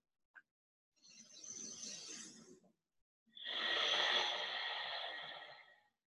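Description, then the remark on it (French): A slow, audible ujjayi (ocean) breath cycle through the nose only during yoga practice: a soft, airy inhale followed after a brief pause by a longer, stronger hissing exhale with a constricted, ocean-like rush, no talking. “Et cette fois-ci, on installe la respiration au jal. Trois inspires, expire par le nez uniquement.”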